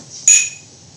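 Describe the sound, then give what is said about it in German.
Wine glasses of Spanish Gran Reserva clink together once in a toast to a first tasting, a bright ringing tap that fades within a fraction of a second over a faint low background hum. “was trinken wir denn da? Auf das erste Testing. Prost. Prost.”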